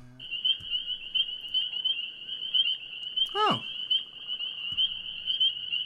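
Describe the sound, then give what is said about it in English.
A dense chorus of peeper frogs keeps up a steady, high-pitched shrill trill throughout the night scene, with a brief voiced exclamation sliding downward partway through. “Hey, eh, wait, That's pe- what peeper frogs, right?”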